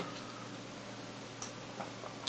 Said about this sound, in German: Ja, man hört die Silvesterstimmung, man hört die Sektgläser. Ja. Jetzt nehmen wir auch einen Schluck Sekt. Genau.